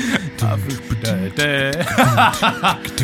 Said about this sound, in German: Affen klingen so.